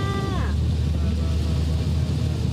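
A car drives through floodwater on a flooded road in Japan's Kanto region during heavy evening rain, its low engine rumble blending with a steady, loud rush of splashing water. A short voice with a falling pitch sounds at the very start.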